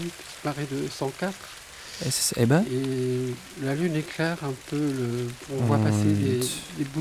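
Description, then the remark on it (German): Light rain patters softly on slightly dry vine leaves in autumn, at night at a small house in Brittany, a faint, steady crackling hiss running continuously beneath a voice speaking in short phrases. “Und etwas Regen fällt auf leicht trockene Weinblätter, denn es ist Herbst.”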